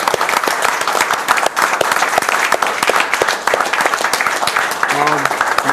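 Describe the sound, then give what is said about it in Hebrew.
An audience applauds steadily, a dense, continuous wash of many hands clapping at full volume for several seconds, with a brief voice rising over it near the end. “אז קודם כל, אני רוצה מחיאות כפיים גדולות לכל מה שהולך עכשיו בארץ, לחיבור בינינו, ללידה של קבוצות חדשות, מציאות חדשה.”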